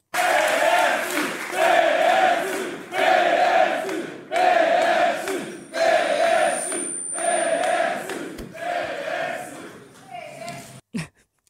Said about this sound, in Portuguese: todos sabiam que já chegava a hora, eh, já chegava de gritar a palavra de ordem PS, mas ela ainda foi lá mais uma vez